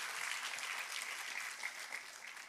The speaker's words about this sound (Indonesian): Tepuk tangannya yang paling meriah buat Tuhan kita.